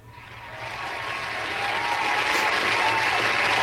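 A crowd applauding the vet, dense overlapping claps forming a steady wash of noise that swells in volume over the first second and then holds loud and sustained.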